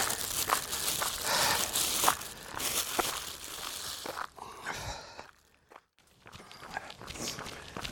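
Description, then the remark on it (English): Loud crinkling of a plastic biscuit wrapper for several seconds, then a brief pause followed by softer, irregular crunching as a biscuit is bitten and chewed during a snack break. “I might even might even have a biscuit. I brought some some biscuits with me.”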